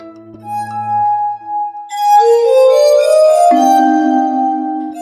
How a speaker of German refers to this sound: Ich weiß, das klingt jetzt gerade ein wenig ungewöhnlich, aber so hört es sich an, wenn eine KI, also eine künstliche Intelligenz, Musik interpretiert.